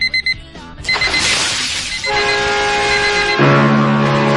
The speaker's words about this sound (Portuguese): então vamos pegar os aparatos para acordar o pessoal aí. Vamos lá. Despertador, buzininha.